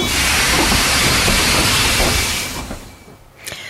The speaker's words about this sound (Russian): Метро. Пока вы стоите в пробках, мы начинаем движение.